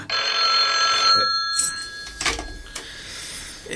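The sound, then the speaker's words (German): A telephone bell in an audio drama rings in a bright, shrill burst for about a second, followed by a few clicks and knocks, like a handset being lifted, with no voices. “Also diese, diese Minute, die die sprechen, parallel zum Telefonat, ist wirklich cool gemacht.”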